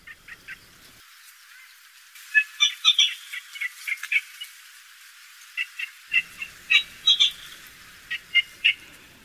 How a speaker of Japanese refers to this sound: 離れた土手の上から声のする方を探してもらった結果ヨシゴいの幼鳥であることが分かりました